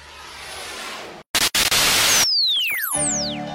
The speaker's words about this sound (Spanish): Ruido blanco.